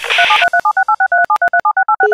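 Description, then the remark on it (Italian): A burst of hissy static gives way to a rapid run of about fourteen loud telephone answering machine tones, short dual-pitched beeps in quick steady rhythm with no voices. “Mi dispiace non trovarti a casa e doverti di- dire questo con segreteria telefonica, anzi complimenti per avere ancora la segreteria telefonica che non va più di moda.”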